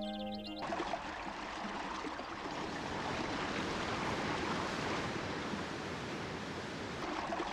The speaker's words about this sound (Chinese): 伴随着飞珠溅玉般的水声，瀑布化作一条条玉色的白链，交错着流泻而下，注入彩池。